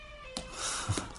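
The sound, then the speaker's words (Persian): An elephant at a zoo trumpets: a sudden, loud, brassy blare that swells and wavers for under a second, following a faint steady hum, with no voices. “این صدای فیل بود”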